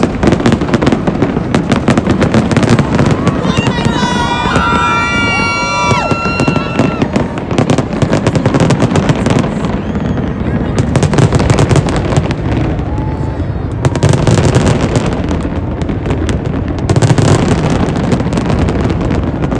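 New Year's Eve fireworks boom and crackle continuously from about four different places near the Bellagio and Paris, some bursts loud, others quieter, with whistling rockets rising and a crowd murmuring underneath.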